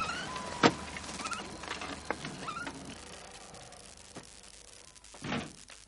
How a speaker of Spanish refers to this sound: Nayaf mira al chico y al dinero, entra en casa y cierra la puerta.